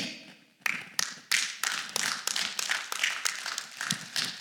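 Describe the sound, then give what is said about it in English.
A long, steady series of rapid knocks on a door, a dozen or more sharp raps in quick succession, fairly loud, with no voices. “And he's just like knocking.”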